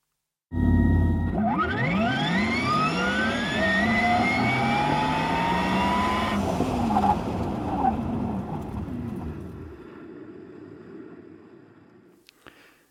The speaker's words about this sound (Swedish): Medan Porsches eldrivna sportbil Taycan låter så här när den gasar iväg.